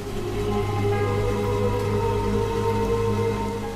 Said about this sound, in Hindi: गहरे अंधेरे में जंगल में जमीन पर पड़े सूखे पत्तों पर गिरती बारिश की बूंदें बहुत ही डरावनी आवाजें उत्पन्न कर रही थी